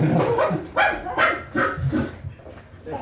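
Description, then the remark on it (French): A person does a convincing dog impression, letting out a series of loud barks in an uneven rhythm, about five or six sharp woofs with short pauses between them. “On croit que c'est un chien, mais c'est pas un chien.”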